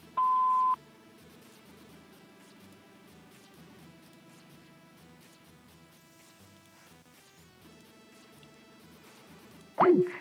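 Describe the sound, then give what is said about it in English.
A single loud, steady answering-machine beep sounds at the start, followed by a long stretch of faint phone-line hiss and a brief warbling electronic chirp near the end. “Please leave a message after the tone.”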